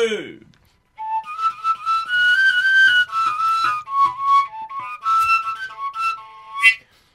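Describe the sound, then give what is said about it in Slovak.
A folk tune played on a small whistle pipe, bright and high with quick ornamented runs and trills, continuing for several seconds with a short pause partway through. “Tu pišťalku som mal také staré šumitko, vieš, to som zahral z nejakého rádia, tuším”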